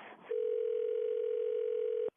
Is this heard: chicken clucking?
no